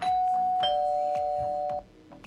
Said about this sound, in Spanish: Toca el timbre mejor, Juvenal. Toca el timbre